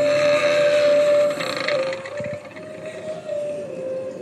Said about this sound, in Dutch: Ik zie trouwens dat ze in het schip ook heel subtiel speakers hebben, hebben verpakt. Oh. Horen nou schip gewoon stranden.